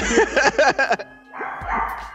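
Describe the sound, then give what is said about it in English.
A dog barks in a quick run of sharp, high-pitched yaps, then lets out a longer, rougher bark-like sound after a brief pause. “Was that an alien or something? Oh, that's my dog.”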